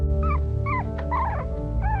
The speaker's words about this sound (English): Quick, close your eyes again. Think of a puppy.